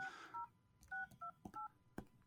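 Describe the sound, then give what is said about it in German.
A phone keypad dialing a number: about five short two-tone beeps at an uneven pace, with soft button clicks between them, fairly quiet with no talking. “es tutet, es tutet.”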